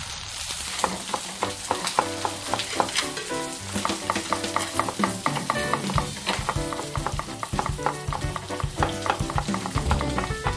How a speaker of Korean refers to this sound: 바삭바삭 치킨이 튀겨지는 모습, 보글보글 끓는 라면 냄새, 빈대떡이 지글지글 익어가는 소리, 눈이든 코든 귀든 하나의 감각만 자극해도 금방 무너지신다면 큰일이네요.